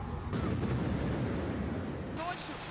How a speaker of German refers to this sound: Ich bin von diesem fürchterlichen Krach aufgewacht und dachte zuerst, es käme von einem Gewitter. Wir hörten die Explosion und spürten die Druckwelle. Dann war überall Rauch und von oben kam Feuer.